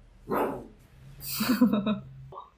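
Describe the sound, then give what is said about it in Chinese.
A pet dog named Coco, just woken up and wanting attention, barks in two bursts: a short sharp bark, then a longer run of rapid, yippy barks with some whining pitch, fairly loud over a low steady hum, ending with a brief faint sound. “嗯，你不理它，它就要一直叫。”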